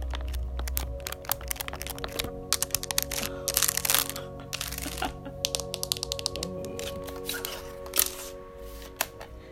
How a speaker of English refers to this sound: That's a graphing calculator. It's a TI-84. TI-84. It's my favorite calculator.